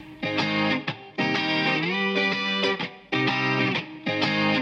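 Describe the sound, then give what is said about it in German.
A loud, distorted electric guitar riff, a key part of a track, plays alone in a few short repeated phrases separated by brief breaks, its notes stepping through a melodic line with a bend in the middle. “Ich spiele mal gerade nochmal das Gitarren, mhm. äh, äh, den Gitarren, das Gitarrenriff ab.”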